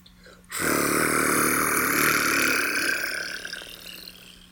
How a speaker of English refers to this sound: Is that a helicopter? Yes, it was.